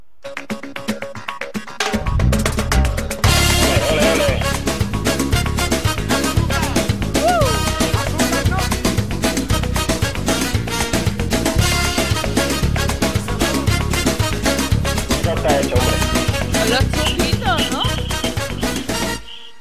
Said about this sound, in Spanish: te voy a poner una canción